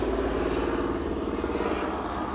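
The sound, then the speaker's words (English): A helicopter circles overhead, its rotor giving a fast, even pulsing thump over a loud, continuous engine roar that fills the whole moment without fading. “man, he's circling. Don't circle. Please don't circle right here, right now.”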